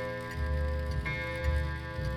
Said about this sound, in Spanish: Su acompasado tic-tac llenó el denso silencio.